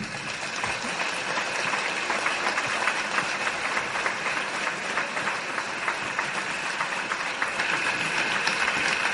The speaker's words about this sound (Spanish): Vamos a recibir con un fuerte aplauso a Inocente Baranda, el anciano Teucli.